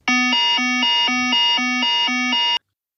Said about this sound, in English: And also, the aircraft has a system on it on the 777, for example. If you advance the thrust levers above a certain level, the aircraft sends out a, an aural and visual uh, warning to us, and it sounds like this.